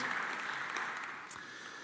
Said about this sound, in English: Yeah, we can give a clap.